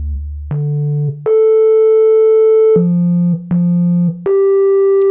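A smooth, pure-toned sub bass synth plays a short line of sustained notes, starting very deep and then pitched up an octave into a noticeably higher, brighter register, loud and clean with no voices.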